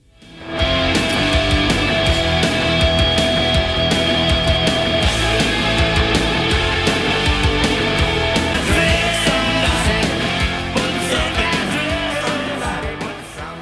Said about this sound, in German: Das war Musik.